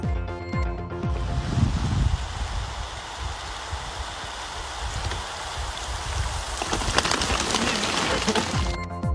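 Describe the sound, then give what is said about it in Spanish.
Steady rain pours down in a dense, hissing wash, with scattered drops pattering on a surface; the downpour swells louder and brighter for the final couple of seconds. “Hablando del agua, gran parte del norte de México espera con ansias la llegada de la lluvia que venga a ayudar en el problema de la escasez.”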